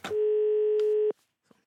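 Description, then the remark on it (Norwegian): A single steady telephone ringing tone of a call being placed to Finnmark, Norway: a loud, clear hum lasting about a second before cutting off abruptly, followed by near silence with a faint click or two. “Jeg tar en telefon til min tidligere kollega og gode venninne i Finnmark.”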